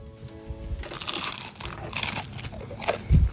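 Someone bites and chews into crisp toast with butter melted into the browned bread, producing a run of loud, dry, crackly crunches in irregular bursts, ending with a low thump. No one speaks.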